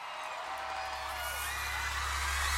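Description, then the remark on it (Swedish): A large, excited young concert crowd in an arena screams and cheers as the opening artist leaves the stage, a dense, continuous roar of high-pitched shrieks and whoops layered over a low rumbling hum that grows steadily louder. “börjar ett högt brus av pirriga röster och tjut sprida sig bland den unga publiken.”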